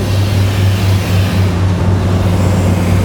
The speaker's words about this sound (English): You can see he's buffing. We have three wheels that we use of various grits you can see if you look at the body how it's frosted looking, that's a body that's been sanded. So that will have to be buffed to bring the sheen back.